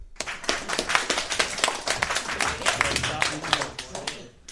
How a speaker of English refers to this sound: Well, that was some awkward claps.